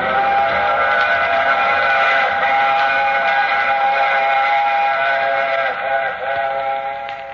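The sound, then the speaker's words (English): A train whistle blows in one long, loud, sustained wail over the rumble of a moving train, holding steady for several seconds before dipping slightly near the end. “I take this same train every week at this same time.”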